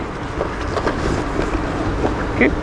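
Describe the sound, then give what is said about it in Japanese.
A heavy rain downpour roars in a dense, unbroken hiss at a steady, fairly loud level, with only a few faint brief knocks rising above it, while bags, including pannier bags, are unloaded and notebooks and a computer are repacked. “パソコン、え筆記用うわ、てか、結構豪雨になってきたぞ。”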